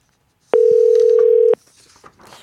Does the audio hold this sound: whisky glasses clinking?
no